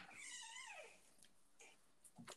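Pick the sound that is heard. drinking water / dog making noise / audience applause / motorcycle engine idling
dog making noise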